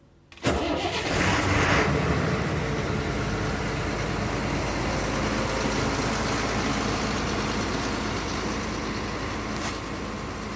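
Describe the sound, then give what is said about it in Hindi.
After a brief hush, an engine turns over and settles into a loud, steady idling rumble, droning on without letup: vehicles, among them the city's oldest, battered number 12 city bus nicknamed Begum Sahiba, stuck in a traffic jam caused by a loaded lorry that skidded and overturned mid-road. No one speaks. “बारिश का मौसम तो चला गया लेकिन सड़क पर घर्षण ना होने के कारण माल से लबालब एक लॉरी फिसलकर बीचों बीच उलट गई इसी ट्रैफिक में फंसी गाड़ियों में से एक थी बेगम साहिबा यानी बारह नंबर की सिटी बस”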